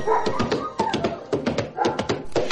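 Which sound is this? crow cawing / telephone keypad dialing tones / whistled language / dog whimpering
dog whimpering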